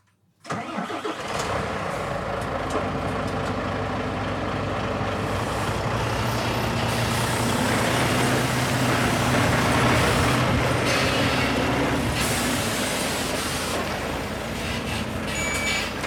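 A new research truck's engine rumbles steadily for about sixteen seconds as it arrives and parks in the harbour of the marine research station in Christineberg, Sweden, a low droning hum with shifting mechanical tones as it moves in and slows, with no talking over it.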